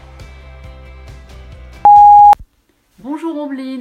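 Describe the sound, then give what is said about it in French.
A single loud, steady electronic beep lasting about half a second, like an answering machine tone, cuts over a soft music bed. A short silence follows before a woman starts speaking. “Après le bip, c'est à vous.”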